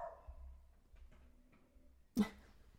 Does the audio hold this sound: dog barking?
yes